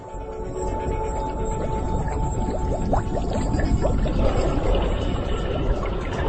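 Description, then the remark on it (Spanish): Dense, continuous bubbling and gurgling of methane gas rising through seawater from a seabed seep, recorded by divers, with many small pops and occasional brief rising chirps, steady throughout, no voices. “Llevo casi cinco años estudiando estas filtraciones y otras, y su aspecto geológico es muy interesante porque son burbujas de metano que contribuyen al calentamiento global.”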